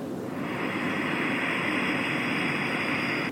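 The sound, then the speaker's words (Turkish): A steady, breathy rush of air in through the nose with the mouth closed, ujjayi breathing done before yoga, hissing and whooshing like ocean surf, held evenly without pause for a few seconds with no talking. “Sanki böyle hani deniz hani şey yaparlar ya denizde deniz kenarında deniz kabuğunu kulağınıza dayarsınız hani okyanusun sesini duyabilirsiniz derler ya, onun gibi bir ses.”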